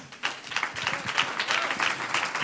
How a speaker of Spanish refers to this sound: ¿Cuántos están leyendo la Biblia? Amén. Démonos un aplauso.